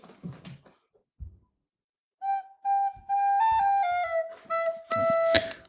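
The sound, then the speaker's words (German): A recorder flute plays a short stepwise melody of clear, sustained high notes, moderately loud, after a brief stretch of faint background noise and rustling. “Cool, eine Blockflöte.”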